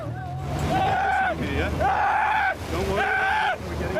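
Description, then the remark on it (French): Several people in the water, afraid of drowning during a rescue by rescuers with a Zodiac boat, cry out and shout in distress, with rising and falling wailing voices overlapping over a steady low rumble of water and engine noise, loud throughout. “Les cris, la peur de se noyer, mais c'est sur le Zodiac que certains sont le plus en difficulté.”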